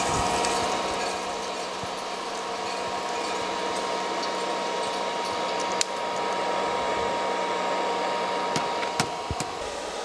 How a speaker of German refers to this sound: So, so jetzt fertig. Jetzt springt auch der Lüfter an, wie ihr hört. Weil Ziel ist auch hier, dass der Kaffee relativ schnell runtergekühlt also wird. Also der wird auch von unten gelüftet.